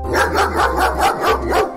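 A K9 drug-detection dog barks repeatedly in a steady rhythm, around five loud barks in quick succession with a low hum underneath and no talking.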